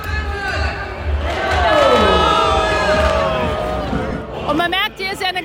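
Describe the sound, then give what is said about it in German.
A dense crowd of thousands cheers and shouts at the big Fastnacht carnival parade through Frankfurt's city centre, catching sweets and calling out. Many overlapping voices rise into loud whoops and calls, with a steady roar of chatter underneath and a few sharper shouts near the end. “Der große Fasnachtszug durch die Innenstadt hat tausende Menschen herangelockt.”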